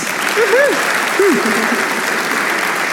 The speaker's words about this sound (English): Would you welcome him with applause.